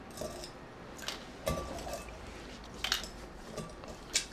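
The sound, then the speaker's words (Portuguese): Several light, bright clinks of ice against glass, scattered irregularly over a few seconds, with soft handling noise between them and no talking. “Pega é mais gelo, né?”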